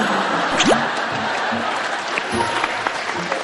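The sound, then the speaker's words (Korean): An audience applauds steadily, a dense, continuous patter of many hands clapping at an even loudness throughout, with a few faint voices mixed in beneath it. “지금 모든 분들이 박수를 치는데”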